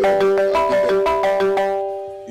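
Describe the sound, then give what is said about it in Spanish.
A telephone rings with an incoming call, a bright, repeating electronic melody of several quick chiming notes in steady rhythm, clear before fading toward the end. No one speaks. “Sí, tenemos gente, suena, ah.”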